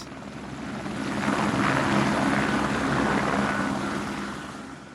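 A helicopter flies past, its rotor chop and engine roar swelling to a loud peak midway and then easing off as it moves away, with no voices.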